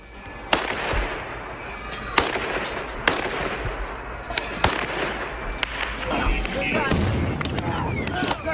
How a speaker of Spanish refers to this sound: Este sonido en sí mismo no dice nada, ¿no? No, sí balas, eh, gente gritando, desespero, caos. Pues es lo que está pasando en Ucrania, pero no solo en las calles